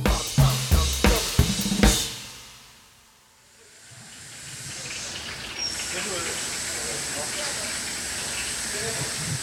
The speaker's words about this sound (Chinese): 进来厨房里面，你就会就听到嗡嗡作响的声音，就是因为大部分我们用的现在的设备都是蒸汽炉，所以它的蒸汽的声音就会特别大声。所以其实，在里面讲话有时候都会要用喊的。